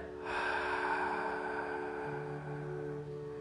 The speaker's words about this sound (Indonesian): Saya ingin coba deh sekarang diri kamu ambil nafas. Yuk, ambil nafas lewat hidung yang dalam. Kemudian kamu hembuskan perlahan-lahan melalui mulut ya.